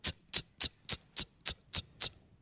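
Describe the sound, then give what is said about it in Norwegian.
A voice imitates the mating call of male parti-coloured bats: eight sharp, high-pitched ticking chirps repeated at a steady, quick rhythm, fairly loud, with nothing else around them. “så så er det ropa, de paringsropa til hannene.”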